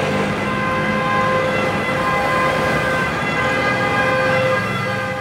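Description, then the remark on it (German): Busy city street noise at the Colosseum in central Rome, Italy, with a steady roar of traffic and a siren wailing through it, a continuous dense urban din with no voices standing out. “Beginnen wir beim Kolosseum im lärmigen Zentrum Roms.”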